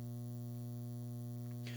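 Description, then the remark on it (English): A steady, low electrical hum drones throughout with a strong bright band near the bottom, joined by a brief burst of hiss at the very end. No one speaks. “But we really appreciate your patience and your continued support and listening, even through the hum.”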